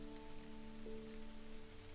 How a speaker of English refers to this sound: You hear it really pick up on the cobblestone, pooling into neat little puddles that make the sound of the rain echo further and further. It continues on until it is a steady drone beneath all the other sounds.